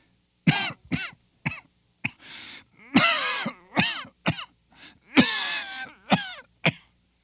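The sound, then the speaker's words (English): A man's prolonged coughing fit inside a cavern with niter-covered walls, seemingly performed by a voice: around a dozen harsh coughs in uneven bursts, with raspy, wheezing gasps stretched between them and no speech. “How long have you had that cough?”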